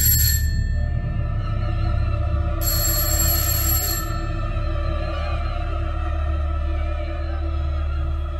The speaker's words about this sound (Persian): چند دقیقه طاقت فرسای دیگه گذشت تا در نهایت زنگ خانه به صدا در اومد